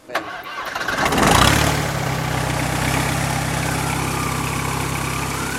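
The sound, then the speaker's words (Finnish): A diesel light aircraft engine is started, cranking and catching, surging briefly before settling into a steady, continuous rumbling run with no talking. “Laitetaan käyntiin ja kuunnellaan, miltä diiseli kuulostaa ja herpättää.”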